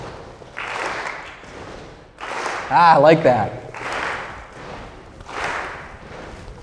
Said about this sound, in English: You can stomp hard. Okay, ready? Stomp, clap. Stomp, clap. Stomp, clap. Stomp, clap. Stomp, clap. Keep it going.